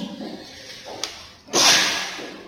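A single sneeze: a faint catch, then a loud, hissing explosive burst that trails off within about a second. No one speaks.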